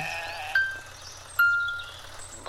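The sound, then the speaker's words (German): Two short, bright sheep bleats from a mobile game, from a sheep left between two wolves, one after the other about a second apart, over a quiet, steady low background hum. “Ich hab ein Schaf vergessen. Zwischen zwei Wölfen.”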